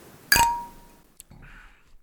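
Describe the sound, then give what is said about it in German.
Beer glasses clink together once in a toast to the upcoming Christmas holidays, a bright ringing strike that lingers briefly with a fading tone, followed by a small tap and soft rustling. “Sehr zum Wohle, Prösterchen. Sehr zum Wohle, Prost. cheers.”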